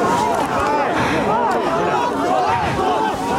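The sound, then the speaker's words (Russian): A protest crowd shouting "Pozor" (shame) into a police officer's face, many raised voices overlapping into a loud, continuous roar with no pauses, individual yells rising and falling in pitch throughout. “Люди в толпе уже не помещаются. Все кричат в лицо полицейскому.”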